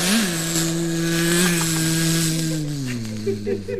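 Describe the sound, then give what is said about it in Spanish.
A voice imitates a fly's buzz: a steady, nasal drone that holds its pitch, wavers slightly, then slides lower near the end, continuous for about four seconds with no other talk. “De nuevo la mosca, insistiendo antipático.”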